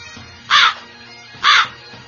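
A crow gives two harsh, raspy caws about a second apart, loud, with a faint low hum underneath and no other sounds.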